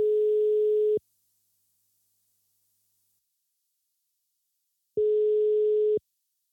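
A steady telephone ringback tone of an outgoing call to Børns Vilkår sounds in two one-second bursts separated by a long pause, clear, with no talking.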